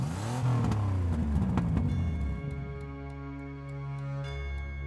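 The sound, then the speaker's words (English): A vintage Cadillac engine cranks and catches with a few clicks, revs up over about two seconds, then settles into a steady idling hum. No one speaks. “I escorted him to my vintage Cadillac, started the engine.”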